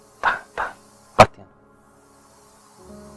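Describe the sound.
Three short, loud scratching rasps right against the microphone, mimicking something scratching at a door, followed by a faint fourth touch and then near silence.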